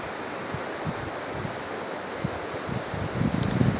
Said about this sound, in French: toutes ces vagues euh, qui viennent vers moi, qui apportent, qui viennent vers le rivage, vers la plage, qui viennent apporter quelque chose disparaître.